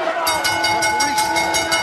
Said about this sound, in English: Bell still ringing. ring that thing all night.